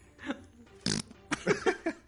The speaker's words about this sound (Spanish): Bueno, pues con ese pedo que se echó el niño elefante.